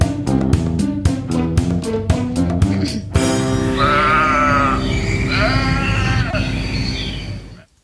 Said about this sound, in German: Mein Gott, haben die Schafe drauf geschrien.